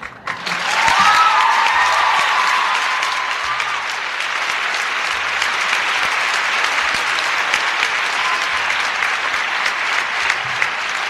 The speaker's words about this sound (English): I'm not going to tell George you clap more for Ferris than you clap for George.